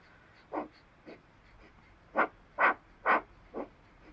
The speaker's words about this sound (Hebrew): העבודה היא כזאת, לוקחים שאיפה ונושפים קצר דרך האף. כזה. שרירי בטן עובדים, שרפת עולה ויורדת, יש פה תנועה בגוף.